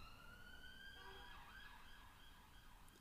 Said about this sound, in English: Well, it's 2 minutes to 3 a.m., some 3 a.m. car noise for you.